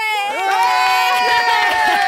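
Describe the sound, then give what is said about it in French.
An audience claps and cheers loudly and steadily, with high excited shouts and whoops rising over a dense wash of applause for about two seconds. “On s'applaudit.”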